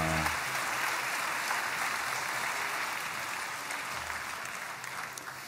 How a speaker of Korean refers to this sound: 성가대 어르신들의 찬양이었습니다. 큰 박수로 우리 격려해 주시고 축복해 주시기 바랍니다.